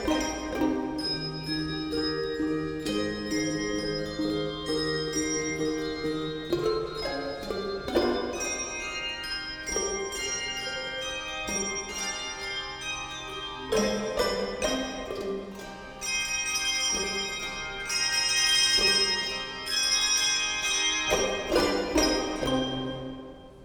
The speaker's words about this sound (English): Thank you, Bell Choir.